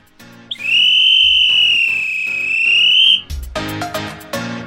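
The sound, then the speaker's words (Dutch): A single long, shrill whistle blast held steady for nearly three seconds, loud, with music or background tones continuing underneath before and after. “Fluit maar.”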